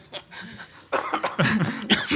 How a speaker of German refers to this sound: Nicht husten da. Ja, Entschuldige, nein, ist nur, ich bin Raucher.